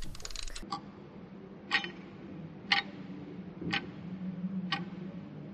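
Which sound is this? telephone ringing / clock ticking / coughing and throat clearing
clock ticking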